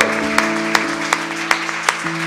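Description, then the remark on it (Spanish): A church audience applauds the Lord loudly with a dense wash of clapping, punctuated by sharp claps falling in a steady beat, while sustained musical tones hum underneath. “Vamos a dar un fuerte, fuerte aplauso al Señor.”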